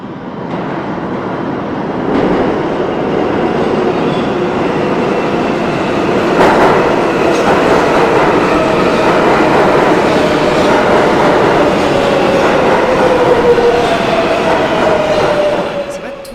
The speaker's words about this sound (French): C'est le métro de New York, ça C'est le métro de New York. Ah. comme un train. vous avez vécu à New York. Euh, vous aimez beaucoup le, bruit du train, de près ou de loin Les deux, oui. autant de loin euh, l'entendre passer, euh, ça m'apaise.